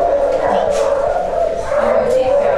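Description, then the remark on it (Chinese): Several experimental dogs in a dog-cloning laboratory bark and yelp over one another in a dense, continuous chorus, loud throughout the short stretch, with a steady droning hum running underneath. “小狗狗，这里边的话没什么，就是一些实验室，就这样。”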